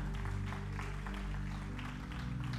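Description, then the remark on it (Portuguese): A church audience claps steadily in a dense, continuous burst of applause offered to the Lord Jesus during a service, with sustained keyboard or organ tones holding underneath throughout. “Você pode dar um aplauso ao Senhor Jesus.”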